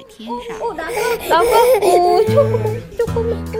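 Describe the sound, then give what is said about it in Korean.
A voice actor at a voice-acting audition imitates a baby crying, with wavering wails that rise and fall for a few seconds, followed by steadier, held crying tones near the end. “여러 외국어의 아기 울음소리까지 믿기 힘들겠지만 여긴 성우 오디션 현장입니다.”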